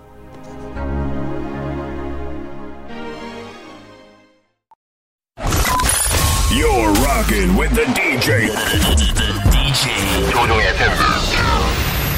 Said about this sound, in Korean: 이 명곡 한 곡 듣고 저희 3부에 다시 돌아옵니다.